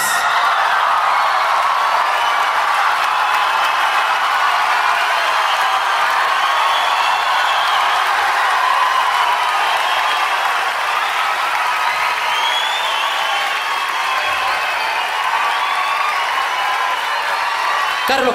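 A crowd applauds steadily to welcome a musician on the Cultura Raíz show on AE Radio, a dense, loud wash of clapping with shouts and whoops rising over it, holding the same intensity without a break.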